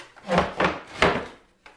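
A wooden chair creaks and scrapes in three short, rough bursts, each a grinding wooden groan with a faint squeal, followed by a brief pause and a softer shuffle.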